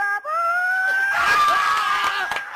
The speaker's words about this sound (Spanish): ¡Buenísimo! Nadie hace ese gritito.